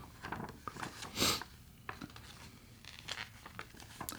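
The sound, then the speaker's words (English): A bunch of paper receipts being handled: scattered crinkles and rustles throughout, with one louder crumpling burst early on, no voices. “Well, there's like a bunch of paper right here. Yeah, some of them are uh, just this... receipts and stuff.”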